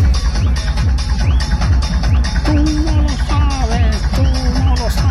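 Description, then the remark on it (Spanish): Loud, driving electronic dance music with a steady thumping kick drum and bright melodic synth lines, dense and continuous like a party sound system playing at full volume, at a rave in Fuente Álamo, Murcia. “En Fuente Álamo las cosas como son, el ambiente suena más o menos así.”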